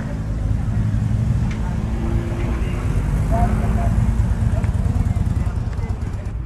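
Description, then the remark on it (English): Crowd hubbub at Kennedy Park in downtown Fall River, New England, during the Great Feast of the Holy Ghost, which draws about a quarter million people: a steady, dense murmur of many overlapping voices with no words standing out, over a constant low rumble, holding an even loudness throughout. “So you'll hear a lot of hubbub.”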